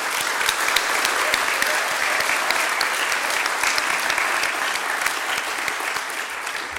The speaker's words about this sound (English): Can we get a round of applause and some hopes and hollers, please?